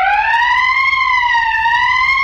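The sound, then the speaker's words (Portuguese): A police siren wails steadily and loudly, its tone rising and falling slowly in a smooth electronic sweep, with no voices over it. “gordinho aí que fica botando essa sirene sireninha da polícia”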